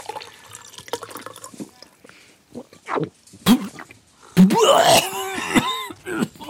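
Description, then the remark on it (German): A drink is poured into a glass: a few scattered gurgles and splashes first, then a loud, steady pour whose ringing pitch climbs as the glass fills. No one speaks. “Darauf einen leckeren Kiba.”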